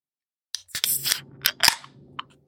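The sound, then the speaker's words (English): A sharp metallic crack and hiss as a beer can tab pops open, then a few clicks followed by a gurgling, fizzy pour of thick, opaque, light golden beer into a stemless Cerebral glass, with no talking. “So I'm going to crack this open and pour it out.”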